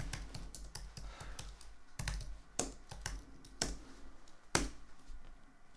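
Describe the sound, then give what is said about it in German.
Rapid keystrokes clatter on a computer keyboard in an irregular burst, fairly quiet, with a few sharper, heavier key presses standing out. No one speaks. “Gut, ich zücke meine Tastatur.”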